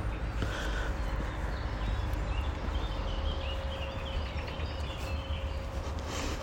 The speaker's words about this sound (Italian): adesso cammino in mezzo a questo parco bellissimo sentite gli uccellini mamma mia che meraviglia